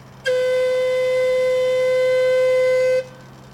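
One long warning whistle blast, loud and steady at a single mid-high pitch, holding for almost three seconds before cutting off sharply. No voices.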